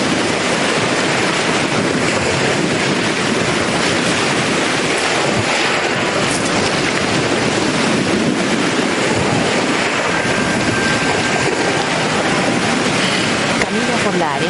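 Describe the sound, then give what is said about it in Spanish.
Waves break on a shore, battering a suitcase at the water's edge, in a loud, continuous roar of rushing surf and spray that swells and churns steadily throughout, with no pauses and a dense hiss across the whole range. “Peter se acerca a la orilla y observa una maleta azotada por las olas.”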